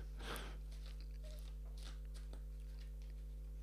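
Playing cards being shuffled: a series of soft, papery riffling bursts, the first a bit louder, over a steady low electrical hum with no talking.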